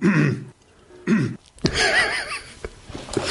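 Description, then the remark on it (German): A few rough coughs and throat-clearing sounds, fairly loud, in short bursts separated by brief pauses, followed by a longer raspy, hoarse clearing. “War auch gerade sehr intelligent, dass ich zum Husten jedes Mal den Knopf gedrückt habe und zum Reden losgelassen habe.”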